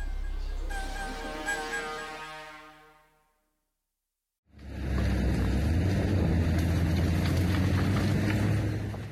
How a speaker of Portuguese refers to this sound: Esse barulho estranho que você está ouvindo é o barulho do motor de um trator. No vídeo publicado por Diogo Cabral no Twitter, um trator de pequeno porte carrega em sua parte traseira uma corrente muito grande em extensão.